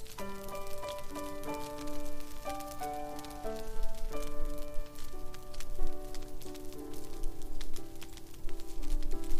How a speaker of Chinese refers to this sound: 你能够持续听到壁炉里火苗跳跃的声音